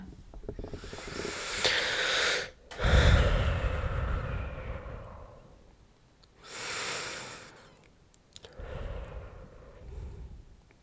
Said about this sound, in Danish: Hvis du prøver at lukke øjnene, mm-hmm. mm, og så tage sådan øh, nogle gode, dybe vejrtrækninger.